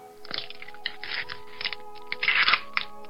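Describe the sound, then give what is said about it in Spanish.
Eggshells crack open in a series of brittle crunches and small snaps as six ducklings hatch one by one in the countryside in the afternoon, coming in irregular bursts over a faint steady hum. “Los cascarones comenzaron a romperse poco a poco y muy despacio, uno a uno fueron saliendo hasta seis preciosos patitos.”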